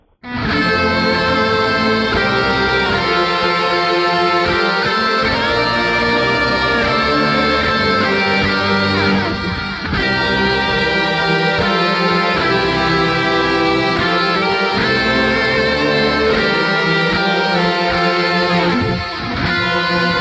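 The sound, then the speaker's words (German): Austrian national anthem music plays loud and steady for about twenty seconds, a dense, sustained instrumental sound with a gritty, distorted edge and no voices. “Juli, 20 vor 12 und mit der österreichischen Nationalhymne Ziele setzen, Ziele erreichen sind wir im Hauptteil dieser Goldperle”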